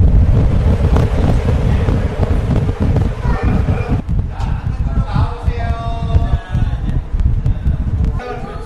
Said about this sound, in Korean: 광나루 안전 체험관에서는 직접 이제 바람을 아. 맞으면서 태풍 체험하실 그 수 있으셨죠? VR 기기가 아니고 정말로 바람 맞기 직전에 고글 같은 네네. 거 쓰는 네, 네. 거였구나.